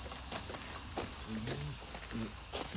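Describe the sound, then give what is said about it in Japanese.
An insect calls in a steady, unbroken high-pitched trill that runs through the whole clip, with a few soft thumps and brief low vocal sounds underneath. “聞こえてたかな今の声”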